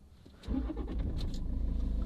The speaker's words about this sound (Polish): Dobra, słuchajcie, spróbuję odpalić samochód w takim razie. Bo może on wykrywa, że o, grzeją się świece, widać, że wolt spadło napięcie.